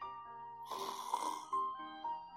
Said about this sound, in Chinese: 雨林里的轻轻的沙沙声，像催眠曲一样，把动物们慢慢的带入了梦乡。有些甚至打起了呼噜。